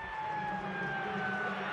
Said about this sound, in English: Over it goes. There goes the siren.